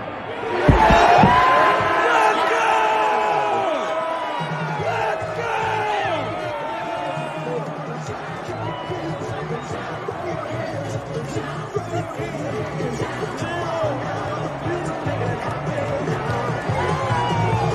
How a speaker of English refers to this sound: So just wanted to show this so people could get kind of the vibe uh, inside of Highmark Stadium at the end of Saturday night's win over the Miami Dolphins. Listen, listen, listen.